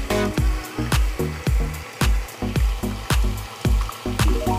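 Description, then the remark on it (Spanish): A stand mixer whirs steadily as it beats eggs until just foamy, a loud motor hum with a regular, rhythmic slapping of the whisk roughly twice a second. No voices. “En este caso lo vamos a hacer de a uno para evitar que alguno esté en mal estado y tener que tirar toda la preparación y lo vamos a poner en la batidora de pie. Los vamos a batir hasta que estén apenas espumosos.”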